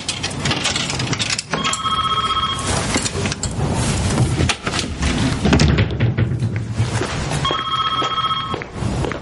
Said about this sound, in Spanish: El teléfono suena y la madre va a contestar.